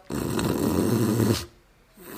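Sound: voice imitating loud snoring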